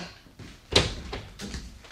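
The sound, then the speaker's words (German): A door is unlocked and opened: a sharp clack of the latch, followed by a few softer knocks and scrapes as it swings, with no one speaking. “Vielleicht können Sie mir jetzt die Tür aufschließen?”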